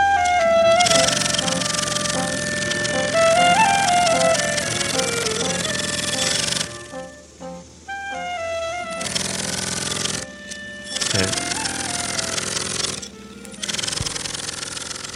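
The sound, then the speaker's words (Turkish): A new segment jingle for a radio program plays, bright electronic music with sustained tones and brief dropouts into near silence around the middle, loud with no voices over it. “bu bayram günü e, Metropolitik Kazı'nın yeni e, jingle'ını ikinci kez dinledik”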